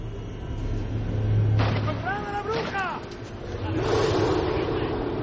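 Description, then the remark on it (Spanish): A wolf's roar rises and falls in wavering, tonal bursts over a steady low rumble, then gives way to a louder rushing, breathy noise. “Tras escuchar el rugido, Valerie se guarda el cuchillo.”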